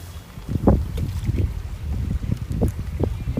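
Steady outdoor rush of river water at the Kawa no Hiroba riverside barbecue site in Tokigawa town, Saitama Prefecture, Japan, with low rumbling gusts of wind buffeting the microphone, a continuous wash of noise and no voices.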